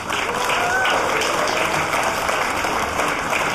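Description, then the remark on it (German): A live audience at Chaos Radio 253, broadcast live from the Seelchen in Berlin, claps steadily for the past half hour of the show, a dense, continuous wash of applause lasting several seconds, with a few faint voices mixed in beneath the clapping. “Könnten wir noch mal einen Applaus für die letzte halbe Stunde haben?”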